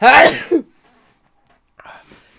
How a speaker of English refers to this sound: Uh, hang on, I'm going to sneeze. Bless you.